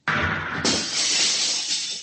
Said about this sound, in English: The viewport is broken. I've shattered it. You can go out. Feel the air rush in.